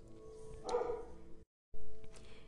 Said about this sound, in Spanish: Lo siento, esa es mi perrita.